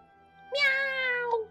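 animal, cat meowing loudly

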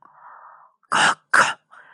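human body sound, coughing

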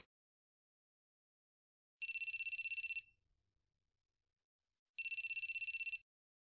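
household object, telephone ringing

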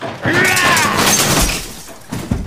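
sound effect, window glass shattering

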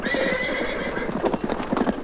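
sound effect, horse-drawn carriage

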